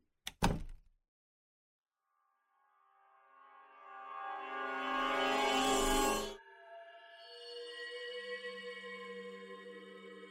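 A couple of sharp wooden thuds, then a door groans open in a long, loud, drawn-out creak that rises and lingers with a ringing, tonal squeal. No one speaks.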